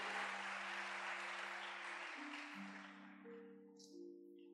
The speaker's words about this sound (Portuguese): Você pode aplaudir ao Senhor. Aleluia. Aleluia.